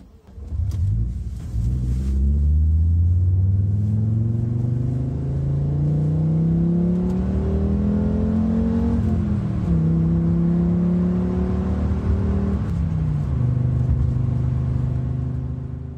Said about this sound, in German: So, und wie das Audi Cabrio klingt in seiner Urversion mit dem 2,3 Liter Fünfzylinder, das hören wir uns jetzt kurz mal an